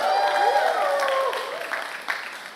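A crowd of young voices cheers and shouts excitedly at a Nerf Camp Awards ceremony, with high whoops and yells sliding in pitch over a steady wash of clapping, loud and sustained throughout.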